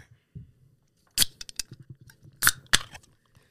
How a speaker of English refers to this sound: Y'all already know when y'all hear that can crack,